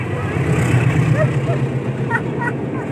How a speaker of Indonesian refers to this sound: Anjing ada kereta coba. Ada kereta. Ini jam sekian ya, KR, KRD eh, pada larang Cicalengka.